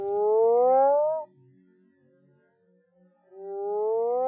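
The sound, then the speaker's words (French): Two long, loud, moaning calls of a Mexican burrowing toad (Rhinophrynus dorsalis), each a drawn-out rising groan with a rich harmonic tone, separated by a quiet pause of about two seconds. “Rhinophrinus dorsalis. C'est une grenouille qui est connue euh, des États-Unis euh, jusqu'au Costa Rica.”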